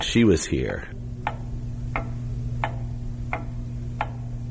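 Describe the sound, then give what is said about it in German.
A clock in a historic house ticks steadily, five crisp, evenly spaced ticks after a brief voice at the start, over a constant low hum. “Die Uhr, die im Hintergrund tickt.”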